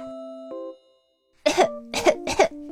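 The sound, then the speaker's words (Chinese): A child coughs three times in quick succession, harsh and fairly loud, as the little hippo Xixi in a children's story coughs while climbing a climbing frame, following a short steady tone that fades into a moment of silence. “西西咳嗽着，好不容易爬到最上面。”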